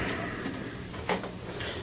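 A judge tries a door to check it is firmly shut, rattling it in its frame: one short, sharp clatter near the middle of a quiet stretch with a low background hiss.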